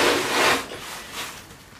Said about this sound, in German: Ich mache ihr jetzt die Balkontür weiter auf, schaffe ihr einen großen Korridor